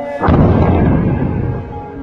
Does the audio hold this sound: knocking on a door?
no